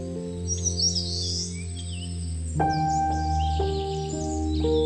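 Birds chirp and twitter in scattered high bursts, fairly faint, over a steady bed of sustained musical tones that shift pitch partway through; no one speaks.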